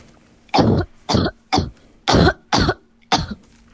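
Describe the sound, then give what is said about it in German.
A series of six sharp human coughs in quick succession, each a short harsh burst separated by brief pauses, with no talking. “So, und jetzt kommt Huster Nummer 3.”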